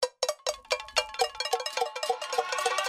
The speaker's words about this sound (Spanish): Y el cacerolazo, ese que durante el estallido en Colombia no paró de sonar. Recordemos estos sonidos.